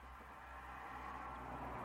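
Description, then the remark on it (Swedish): A steady rumble of traffic from a nearby road, a broad whooshing wash that swells slightly toward the end as a car seems to approach, with no voices. “Vi sitter vid en väg. Så det kommer köra förbi bilar.”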